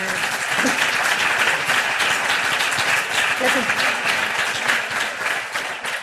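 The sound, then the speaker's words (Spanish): An audience of women applauds steadily for the full six seconds, a dense, even wash of many hands clapping at a constant loudness, with faint voices mixed in underneath. “y qué triste que tengamos que aplaudir porque todas nos reconocemos en esto.”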